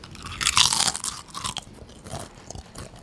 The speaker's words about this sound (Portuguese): Se eu comer essas batatas, vai fazer barulho e vai atrapalhar o podcast?